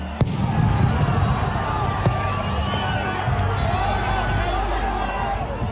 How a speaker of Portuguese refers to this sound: A primeira medida foi o disparo de gás lacrimogênio e bombas de efeito moral.